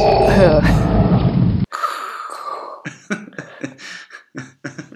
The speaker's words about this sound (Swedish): Jag trodde du skulle säga sin Stormtroopers hjälm. Ja, jo men det har han fast headsetet är ovanpå. Okej, okay. jag har inte inbyggt headset i en Stormtrooper hjälm. Ja, och så inleder han med den här tunga andningen.